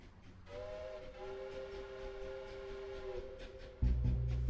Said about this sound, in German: Der Zug trägt es fort.